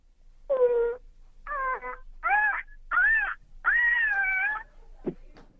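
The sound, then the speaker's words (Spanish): A person imitates an ostrich call: five loud, wavering, nasal cries in a row with short gaps, pitch bending up and down, followed by a brief low grunt. “¿Cómo escuchan esta avestruz”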